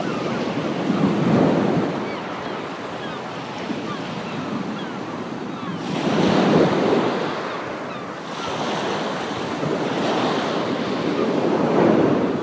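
Ocean waves wash onto a sandy beach in slow, rolling surges, each broad roar swelling and fading every few seconds, with a constant hiss of surf and light wind between them. No voices.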